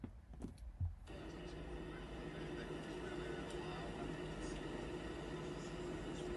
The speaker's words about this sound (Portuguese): vão ouvir brown noise para não ouvir o barulho do avião e conseguirem dormir